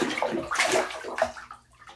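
Bath water that is getting chilly sloshes and splashes in a few uneven surges, a soft wet swirl that quiets toward the end, with no voices.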